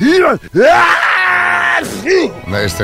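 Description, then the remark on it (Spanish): A loud, wildly exaggerated sneeze: a long, wailing build-up with swooping pitch, then sharp bursts that sound more like screams than a normal sneeze. “Disculpa, ¿esto que era un estornudo o un asesinato? Yo creo que estornudo, pero tampoco lo tengo yo muy claro.”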